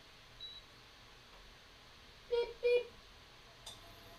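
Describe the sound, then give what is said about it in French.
A cooking hob with a saucepan on it is switched on with two short electronic beeps in quick succession, followed by a faint click. “Par exemple, tu as allumé la plaque Tu as allumé la plaque Oui, j'allume la plaque.”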